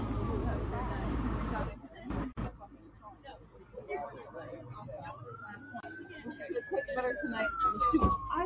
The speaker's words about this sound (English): Sirens.